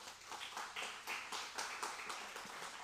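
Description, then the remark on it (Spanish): An audience at a Christian sermon applauds the Lord together, a dense, steady wash of many hands clapping that holds for a few seconds, with no voices standing out. “Démosle un fuerte aplauso al Señor, amén.”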